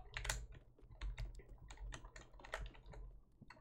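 Rapid, hard clacking of a computer keyboard being smashed, a dense irregular burst of keystrokes continuing for several seconds with no voices.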